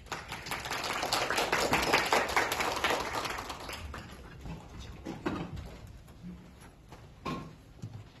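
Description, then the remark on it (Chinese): An audience applauds to welcome a teacher to the stage, with a dense, steady burst of clapping that gradually thins out and fades, leaving a few scattered, softer claps toward the end. “主们掌声欢迎孙老师。”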